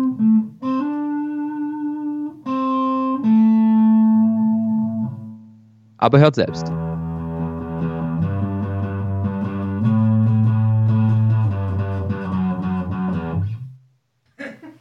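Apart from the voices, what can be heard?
electric guitar being played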